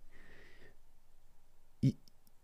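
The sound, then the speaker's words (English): A fidget cube gives one sharp, loud click, followed by a couple of faint ticks, after a stretch of soft rustling noise. “This item is quite loud and makes a lot of clicking noise, which is not what we wanted.”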